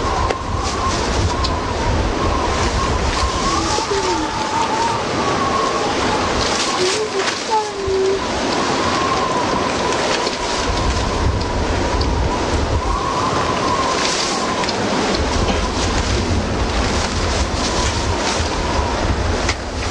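Loud, unbroken roar of typhoon wind and heavy rain for the whole stretch, a dense hiss with low rumbling gusts and a faint wavering whistle rising and falling above it.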